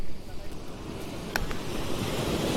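Evening ocean waves wash steadily onto the shore at the Hayama seaside in a continuous low rushing roar, swelling slightly in the second half, with one brief sharp click partway through and no voices.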